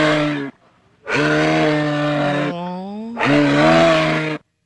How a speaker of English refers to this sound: That's a moose, everybody. We got a moose. That's so cute.